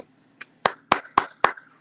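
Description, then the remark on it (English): Five sharp hand claps in a quick, even rhythm, the first one softer and the next four loud and crisp, with no talking over them. “five claps to that.”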